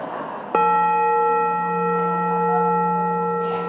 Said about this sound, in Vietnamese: bây giờ mình nghe nè ha ai á mà nghe được tiếng chuông mà nghe tiếng buông cái là biết mình vào được cổng chùa đó mà ai mà nghe tiếng beng cái là nó nằm ở ngoài cổng là nghe này ha